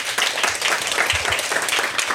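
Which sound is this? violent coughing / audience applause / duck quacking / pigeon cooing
audience applause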